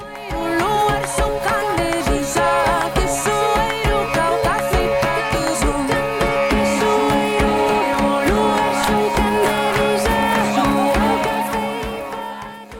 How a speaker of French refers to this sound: En octobre 2023, … jouait lors d'un rassemblement contre un projet d'extension d'autoroute entre Toulouse et Castres.